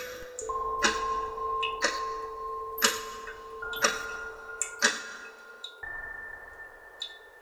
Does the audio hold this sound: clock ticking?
yes